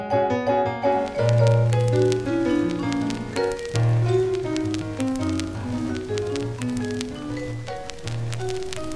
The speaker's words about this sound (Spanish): Escucho rumores de fritura. Ay, ese hormigueo que logran los discos distinguidos.